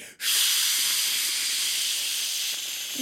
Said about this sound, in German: es ist eine Dampfsauna